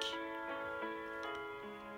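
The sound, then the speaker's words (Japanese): A room clock ticks steadily, its crisp clicks evenly spaced about three per second, set against a soft sustained tonal hum, as it marks eleven o'clock at night; no one speaks. “部屋の時計が夜の11時を告げた”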